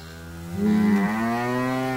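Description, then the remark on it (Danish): A cow lets out a single long, loud moo, a low droning call that swells midway and holds steady to the end, clear with no talking over it. “Hey, øhm, jeg vil gerne købe den der ko der.”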